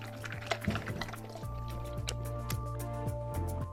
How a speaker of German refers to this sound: So, der Hund kriegt jetzt erstmal ein bisschen Futter mit Wasser und das ist so ziemlich das erste Wasser, was wir heute verwenden.